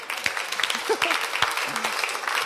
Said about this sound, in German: Jeder, der hier drin sitzt, ist ein Gewinner. Komm, lasst uns euch, euch mal einen Applaus geben, oder?